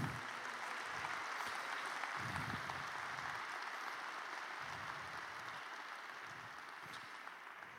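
An audience applauds the Lord together in sustained, dense applause, a steady crackling wash of many hands holding at an even level for several seconds before easing slightly toward the end.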